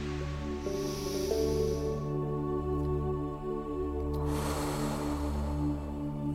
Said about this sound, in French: Commençons par faire ensemble deux respirations en gonflant le ventre à l'inspiration, en relâchant le ventre à l'expiration. première respiration.